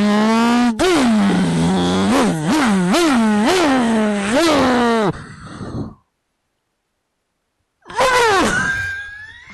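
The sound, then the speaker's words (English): A voice mimics the revving engine of the motorcycle Clark rides up on, his dad's motorcycle: loud, rhythmic surges that rise and fall in pitch, then a short silence before one more climbing rev. “That bro doesn't know how to drive that motorcycle, man. He's gonna blow that motor.”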